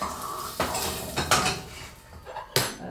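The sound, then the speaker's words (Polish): A metal pot and utensils clink and clatter while margarine is melted in the pot, with a few sharp, irregularly spaced knocks over a low scraping background, and no one speaking. “Nadtopię tylko markarynę, za chwilę przełożę do garnka również miód”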